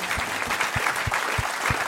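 A crowd applauds steadily, a dense wash of many hands clapping at an even level, with a few louder thumping claps recurring at a regular beat underneath, applauding a writer for the many texts he wrote.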